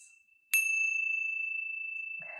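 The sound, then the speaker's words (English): A single meditation chime is struck once, ringing out clear and bright with a long, steady shimmering tone that sustains until the end, with a faint sound creeping in at the very end. “the chimes.”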